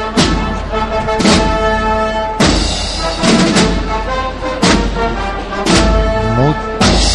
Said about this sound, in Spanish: Mientras seguimos escuchando los sones de la marcha del maestro Cebrián.